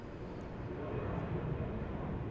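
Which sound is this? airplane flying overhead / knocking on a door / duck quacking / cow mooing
airplane flying overhead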